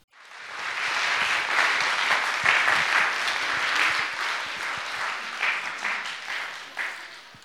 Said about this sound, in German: Merci vielmals für den Applaus. Letztendlich gehört er nicht zuletzt an Jesus.